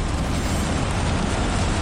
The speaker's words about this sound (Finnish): Tässä on tuli. Pekingin olympialaisista, avajaisista. Kuunnelkaa, kun se tuossa sen tulen ääntä. Kuuletteko? Kuuletko?